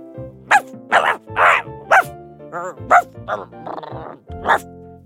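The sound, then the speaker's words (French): A dog named Toulouse, in its kennel, barks in a quick, uneven series of about seven sharp barks, some sounding more like whiny yelps, with brief pauses between them. “Louisa et Nino ressortirent de l'autre côté du jardin, en prenant un tunnel qui les amena directement dans la niche du chien.”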